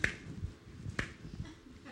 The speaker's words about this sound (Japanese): ちょっとリズムが違うんですからちょっとご自分のことを顧みてくださってあの違う手拍子をあの覚えてくださればいいなと思うんですけど。でも一見わかんないですよこうやってやってるだけだからね